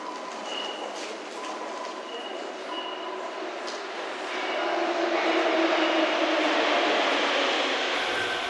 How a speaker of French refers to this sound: Cela fait plusieurs fois que je remarque qu'il y a comme un bruit de grillon à la station Saint-Michel.